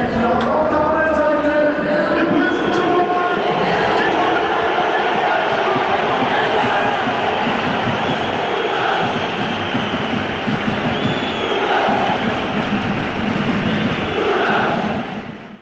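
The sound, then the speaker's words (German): A dense, steady roar of a football stadium crowd at a cup match, recorded live inside the stadium at 19:45 as the goalkeepers first come out, loud throughout with overlapping voices chanting and cheering in a sustained wash of sound, fading slightly at the very end. “Wer im Stadion war, weiß natürlich, dass sich das in echt noch viel lauter angehört hat, aber eben wie gesagt nur einmal, um ein bisschen auch in den aktuellen Cupsieg mit den Ohren sozusagen reinzuschnuppern.”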